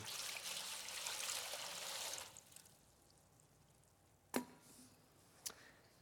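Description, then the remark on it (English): Water pours steadily into a basin for about two seconds with a rushing, splashy hiss, then stops; two sharp drips or light knocks follow in the quiet that remains. “So, what Jesus does, Jesus grabs a towel He wraps it around his waist and he pours the water in the basin.”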